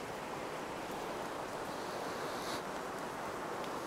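Steady light rain drizzles outside at night, a soft, continuous hiss of fine patter with no breaks, fairly quiet and even throughout, with no voices.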